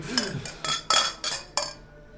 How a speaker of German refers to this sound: Wir werden das nächste Bier anstoßen. Wir stoßen nochmal eine an.